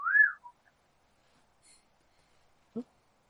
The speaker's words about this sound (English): Just whistle, and we'll, I'll come to you, my lad.